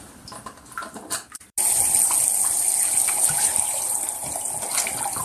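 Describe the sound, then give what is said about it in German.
Bathwater gushes loudly and steadily as it is poured into glass jam jars, starting abruptly after a brief burst of softer splashing and continuing without pause. “dann halt das Wasser in irgendwelche Glas, Konfigläser reingespült oder über jegliche Spalte laufen.”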